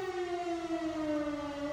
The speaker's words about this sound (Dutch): ik hoor de sirene en dat, je weet wat dat betekent.